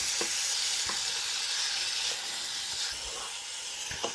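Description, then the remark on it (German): Steady sizzling of chicken frying in a somewhat overloaded pan, with a few scraping, clattering knocks as a turner flips the pieces. No one speaks. “Bisschen überladen, ein bisschen überfrachtet die Pfanne, aber nicht dramatisch.”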